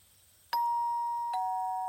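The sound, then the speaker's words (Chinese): A two-tone ding-dong doorbell: a bright higher chime followed by a slightly lower one, each ringing on and slowly fading. No voices, just the chime sounding alone. “大野狼听到门铃声，觉得很奇怪， 会是谁啊？”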